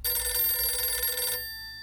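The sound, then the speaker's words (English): An old-style telephone bell at a remote safe house rings steadily in one sustained, metallic burst of about a second and a half, then stops and leaves a fading ringing tone. No voices are heard. “Amado took the call at a remote safe house of his own.”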